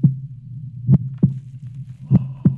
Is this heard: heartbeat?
yes